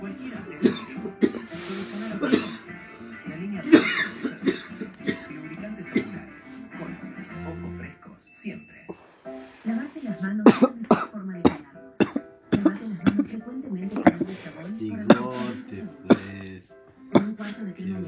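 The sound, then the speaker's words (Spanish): An exhausted person coughs repeatedly, harsh bursts coming in uneven clusters alongside throaty vocal sounds and a murmuring voice. “Rendido y tosiendo.”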